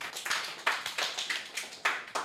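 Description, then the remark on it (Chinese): Audience applause from a small group welcoming the discussion guests as the host hands over, with sharp, distinct claps arriving in an uneven, fairly sparse rhythm. It's moderately loud, with no talking over it. “我们掌声鼓励。”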